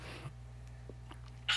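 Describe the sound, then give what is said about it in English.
A quiet sneeze: a soft breathy rush, a few faint clicks, then a sharp hissing burst at the end. No one speaks. “bless you”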